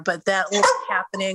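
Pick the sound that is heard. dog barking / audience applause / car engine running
dog barking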